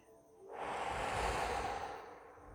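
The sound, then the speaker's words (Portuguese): A long, deep breath blown out through the mouth during a guided relaxation breathing exercise, after breathing in through the nose: a soft airy whoosh that swells after a brief pause and tapers off over about two seconds, alone with no talking. “Inspire e assopre.”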